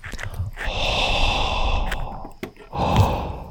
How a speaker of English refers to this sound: Um, how about you guys just listen to me breathe?